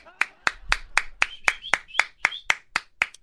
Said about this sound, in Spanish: Adelante, aplaudete.